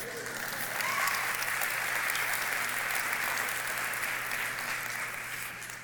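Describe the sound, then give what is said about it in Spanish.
Steady audience applause, a dense wash of many hands clapping at an even, fairly loud level for about six seconds before tapering slightly at the end, with no speech over it. “Nadie aplaudió para eso, ¿verdad?”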